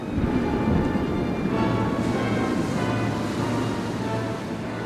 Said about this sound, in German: Plötzlich schlägt das Wetter um und die Flüchtenden werden von einem gewaltigen Sturm überrascht.